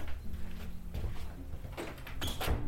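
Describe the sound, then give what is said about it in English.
A large ornate door on the wall behind a concierge opens with a low rumbling groan, followed by a few scraping, creaking knocks as it swings, moderately loud with no voices. “Suddenly, a large ornate door materialized on the wall behind the concierge, as if out of thin air.”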